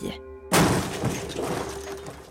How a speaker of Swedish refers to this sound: Något hade nämligen krockat in i båten.